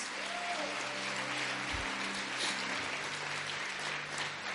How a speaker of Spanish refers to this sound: Dale un fuerte aplauso al Señor una vez más.